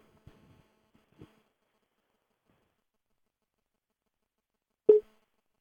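A single short telephone ringing tone sounds once near the end as a call is placed to stage SS6. It is clear and comes after a few faint clicks and handling noises in otherwise almost total silence.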